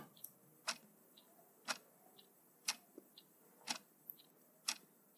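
A clock ticks steadily, alternating a sharper tick with a softer tock about twice per second. The crisp clicks stand alone against a quiet, faintly hissy background.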